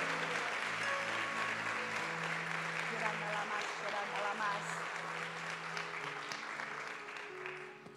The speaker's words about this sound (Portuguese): Se você querer, dê uma salva de palmas. Aleluia.